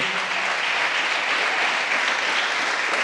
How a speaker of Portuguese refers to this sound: Será que tem alguém para dar um aplauso a Jesus aqui?